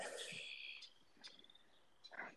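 Faint outdoor birdsong: thin, high whistled notes and a few short chirps scattered through a quiet background, soft, with no one talking.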